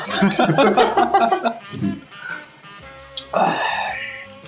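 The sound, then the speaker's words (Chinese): Glass bottles clink together with a bright, ringing knock, a few short high taps that linger briefly, while people drink, chat and laugh around them. “哎，别瞎撞瓶儿，到时候那个人听见他就是干嘛呢？”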